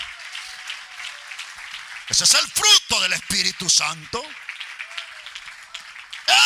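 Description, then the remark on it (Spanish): An audience keeps up steady applause to the Lord, a dense wash of many clapping hands running the whole time, while a man's voice speaks loudly over it for a couple of seconds in the middle. “Esa es una iglesia sana, dele ese aplauso al Señor.”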